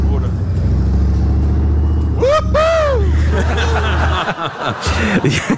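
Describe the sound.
A Leopard 1 tank, weighing 45,000 kilograms, drives with a deep, steady rumbling engine drone. Partway through, a person lets out rising, whooping laughter over the roar, and then talking follows as the engine noise fades.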